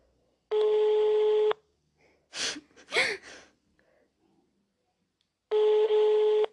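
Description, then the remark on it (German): A telephone ringback tone over a speakerphone as a call is placed to a classmate: two one-second buzzy, steady tones separated by a long pause, with a couple of brief breathy vocal sounds between them. “Okay, ich rufe jetzt an, okay? Ich mache auf Lautsprecher, okay?”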